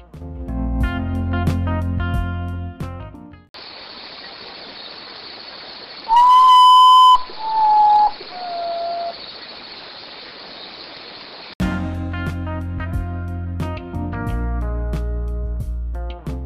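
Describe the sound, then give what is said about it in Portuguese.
A common potoo (urutau, also called Mãe da Lua) calls a mournful, whistled series of three notes, each lower than the last, the first loudest, over steady hiss, with instrumental music before and after. “É o urutau. É uma ave comum no cerrado brasileiro e também em outras partes do Brasil também pode ser conhecida como Mãe da Lua.”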